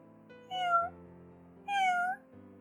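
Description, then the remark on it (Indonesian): A black cat meows twice as it approaches a woman eating, two drawn-out, rising-and-falling cries spaced about a second apart, fairly loud over a low steady background hum, with no talking. “Hus, hus. Jangan kesini kau kucing hitam.”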